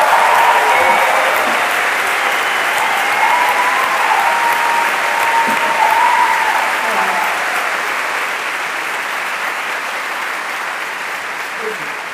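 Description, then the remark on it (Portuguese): Sustained applause from a theatre audience of 2,300 people during a play, a dense wash of clapping that stays loud and steady for several seconds before easing off slightly toward the end. “Aí veio aquele impensado aplauso de 2.300 pessoas.”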